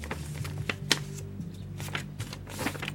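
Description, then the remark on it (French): Crisp paper crinkling and creasing in short irregular bursts, with sharp snaps as a sheet from an old notebook is pressed and folded into an origami frog, over a low steady hum. No one speaks. “Je vais essayer de faire une grenouille. Hum. Il est bizarre ce papier.”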